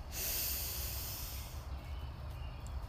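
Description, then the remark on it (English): A long, deep breath drawn in during a breathing exercise, extending the belly, a steady airy rush lasting over a second, then fading into a quiet low rumble with no talking. “So we breathe in, extending our belly, and out with a loud sigh to get any stale air out.”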